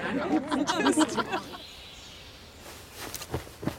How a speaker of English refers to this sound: Did y'all hear the barred owl?